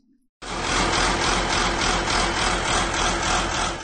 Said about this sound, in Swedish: Det är ännu ett motorljud den här gången och jag kan avslöja att det är en blå traktor